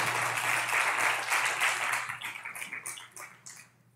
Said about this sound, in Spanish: ¿Por qué no les damos un aplauso a todos ellos? Bien, bien fuerte.